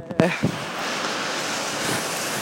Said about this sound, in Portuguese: Mano, tá chovendo pra caralho!